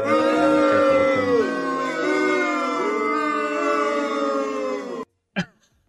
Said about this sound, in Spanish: Y mi abucheo, weón, ¿dónde está mi abucheo? ¿Quería abucheo? Sí, pues bueno.